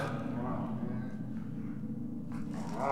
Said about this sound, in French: Qu'est-ce que c'était Des chiens Des chiens enragés ah. vous allez bien Ah putain le saloperies Elles ont failli m'arracher l'épaule